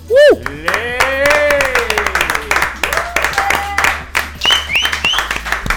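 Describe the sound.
A small live audience of four people claps steadily, the quick uneven claps continuing throughout while excited voices talk and call out over them.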